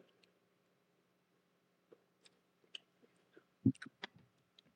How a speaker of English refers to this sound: So, so what you want to do is want to grab take a bite. Yeah, take a little bite. On that, and then sip on your drink.